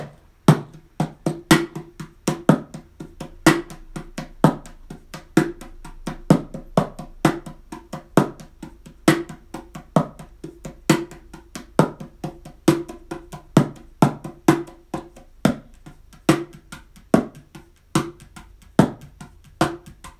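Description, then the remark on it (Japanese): Hands drum a steady groove on a mini cajon, alternating deep bass thumps with sharp, crisp slaps in a repeating rhythm, played alone with no talking. “まあ紹介がてらねまあ音声でどれだけそのなんかニュアンスが伝わってるかどうかは不安ですけどはいこんな感じで、えー、叩いております。”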